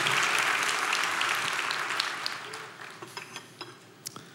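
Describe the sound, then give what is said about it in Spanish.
An audience applauds Jesus Christ with dense, steady clapping that gradually thins out, ending in a few scattered individual claps as the applause fades. “Dale un fuerte aplauso a ese maravilloso, glorioso, único Jesús el Cristo.”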